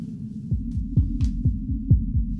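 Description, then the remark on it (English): Two heartbeats overlap through a monitor, steady low thumps in a quick, interleaved rhythm over a constant murky hum, with no voices. “Listen. Hmm? There are two hearts. Two.”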